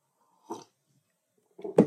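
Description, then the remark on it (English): A quick slurping sip of coffee, a pause, then a louder swallow and breathy exhale, with no one talking. “Excuse me, I had to take a sip of coffee.”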